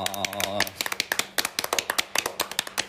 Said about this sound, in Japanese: ここぞとばかりそうそうこの88回ですパチパチみたいなああも パチパチしましたパチパチしました